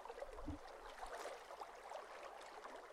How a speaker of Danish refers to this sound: Nu sidder han på en bænk og kigger ud over vandet og lytter til de blide bølger, der skyller ind på stranden.